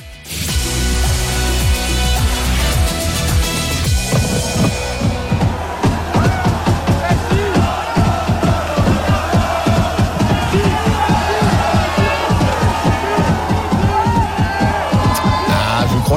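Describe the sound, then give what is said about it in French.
Football fans in a large stadium chant loudly and rhythmically in unison, a player's name repeated over and over, with dense roaring voices filling the whole recording. “Il va falloir s'habituer à entendre ces cris désormais euh, à l'accent français, hein, même si le prénom ne, change pas.”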